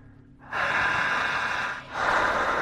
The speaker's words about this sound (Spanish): Y aquellos que están haciendo el ejercicio en casa, sigan respirando, intensa, potente y jadeante